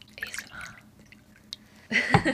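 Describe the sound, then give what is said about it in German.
Liquid being poured, with soft trickling and dripping at first, then a louder gurgling splash of soju filling a glass near the end, at home. “Jetzt kommt das Sojo-Geräusch.”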